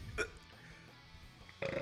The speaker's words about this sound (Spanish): Ahora a mí me dio hipo, carajo